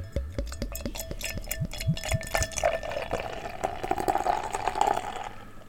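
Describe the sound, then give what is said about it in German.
Beer from a freshly opened small 0.33-litre bottle pours into a glass, opening with a rapid series of glugging, rising-pitched gurgles that settle into a steady, fizzy splashing stream of moderate loudness. No one speaks. “Und machen wir mal auf. Also bis jetzt verhält sich's noch wie ein normales Bier. Ich lasse es mal ins Glas.”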